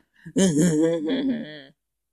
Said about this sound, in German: Das sage ich, wie klingt ein Geist? Das ist ein Geist. Ja, das hat Julian Bam in seinen Gruselgeschichten eingebaut.